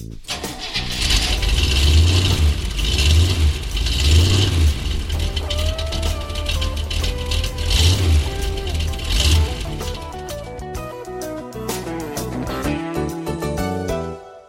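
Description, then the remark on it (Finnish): A car engine cranks and catches, then revs in several loud, throaty surges before settling into a rougher idle with scattered rattles and clicks. No one speaks. “Kone käyntiin.”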